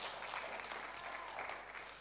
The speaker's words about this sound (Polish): Jak już klaskamy, to mocno klaskamy albo wcale. Jak już klaskasz, to klasz mocno albo wcale.